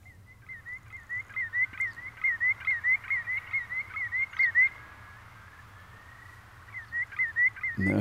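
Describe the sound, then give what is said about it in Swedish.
A common greenshank calls in a fast, rhythmic series of repeated mid-pitched notes, pausing briefly before resuming, over a steady low background rumble, with no talking. “En glutsnäppa? Glutsnäppa, ja.”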